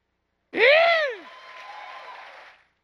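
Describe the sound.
A crowd of voices, urged to shout louder, erupts in a loud, drawn-out shout that swells and falls, then gives way to a steady roar of crowd noise that holds for a couple of seconds and stops.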